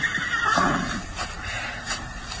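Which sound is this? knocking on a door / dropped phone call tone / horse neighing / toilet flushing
horse neighing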